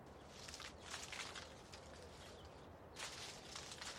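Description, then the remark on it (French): Dry rustling and scratching in dead leaves as a blackbird rummages in a garden in winter, in leaves spread over a vegetable plot, coming in irregular bursts with brief pauses, a steady quiet outdoor background underneath. “Ça, c'est un merle qui fouille dans mon jardin.”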